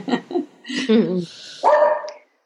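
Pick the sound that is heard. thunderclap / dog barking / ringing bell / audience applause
dog barking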